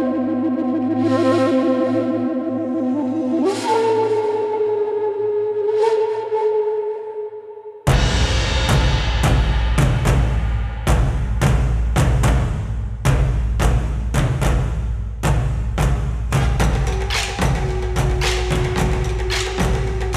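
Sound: music played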